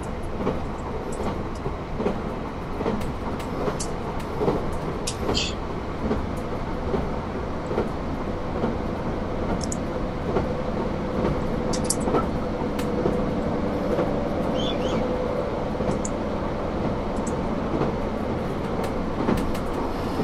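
A JR Hokkaido train rolls steadily along the rails of the Nemuro Main Line and Sekisho Line between Obihiro, Shintoku and Minami-Chitose in Hokkaido, Japan, a continuous low rumble with faint rhythmic clicks and occasional brief high squeaks and rattles; no voices are heard.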